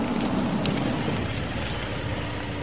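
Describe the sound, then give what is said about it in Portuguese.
A car engine rumbles steady as the car pulls up in front of a house, with a brief high brake squeal midway as it comes to a stop. No one speaks. “Michael para o carro em frente à casa de Melissa”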